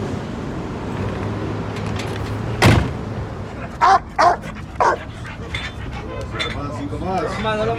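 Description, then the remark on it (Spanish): A dog barks three or four times in quick, sharp bursts after a sudden thump, with a low background hum and indistinct voices around it. “perro.”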